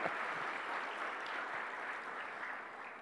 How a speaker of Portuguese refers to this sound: Amém? Pode aplaudir o Senhor? Obrigado! Glória a Deus!